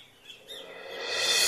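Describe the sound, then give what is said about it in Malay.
A magpie robin chirps in a short run of bright, warbling notes, then the sound swells into a louder, hissy wash toward the end. No one speaks. “Wahai burung murai, aku cuma bergurau-gurau.”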